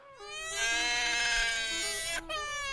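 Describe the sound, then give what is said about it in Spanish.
A baby crying sound effect: one long, loud, high-pitched wail held steadily, with a brief catch of breath near the end before the cry resumes. “Y tenemos el llorón de la semana.”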